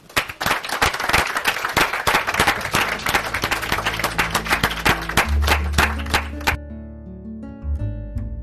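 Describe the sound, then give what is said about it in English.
An audience applauds a discussion panel steadily with dense, sustained clapping for several seconds, then the clapping cuts off as a soft musical tone with low sustained notes takes over. “So please join me in thanking our panel.”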